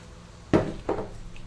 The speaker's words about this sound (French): Je reprends une gorgée de café, donnez-moi une seconde.